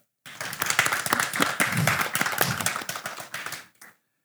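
A small group claps for about four seconds, the scattered, uneven hand claps of only a handful of people, close and fairly loud, ending abruptly with no voices.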